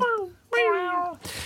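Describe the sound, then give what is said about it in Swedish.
A cat meows twice, fairly loud: a short meow, then a longer one that slides downward in pitch, followed by a brief hissy rustle. “Det är en katt.”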